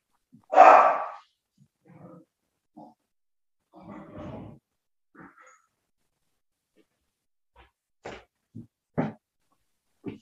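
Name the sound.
dog barking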